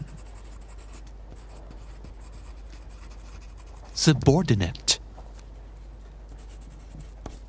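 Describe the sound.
Soft, steady scratching of a pencil tip moving back and forth across paper as vocabulary words are written down, quiet throughout, with a single word spoken briefly near the middle.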